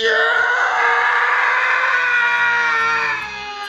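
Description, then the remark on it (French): A single long, loud scream of anger, sustained at full force for about three seconds with a harsh, strained tone before it breaks off abruptly. No one speaks. “Ah, et comme je suis sympa, on va aussi faire un bon hurlement de grosse colère, super long, super fort.”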